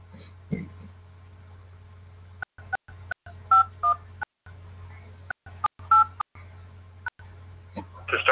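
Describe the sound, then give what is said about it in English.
A series of short telephone keypad beeps as a host PIN is punched in on a Blog Talk Radio phone line, with irregular pauses between presses, over a steady low line hum. No one speaks. “Please enter your host pin. When finished, press the pound key.”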